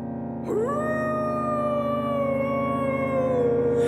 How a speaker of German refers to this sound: Ein Heulen von einer Wolfsmutter, die ihrem Jungen ruft.